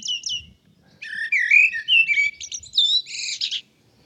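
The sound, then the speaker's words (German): A common blackbird sings a rich, warbling phrase of fluting whistles and twittery notes, clear, preceded by two brief high chirps, with no voices present. “Das ist die Amsel.”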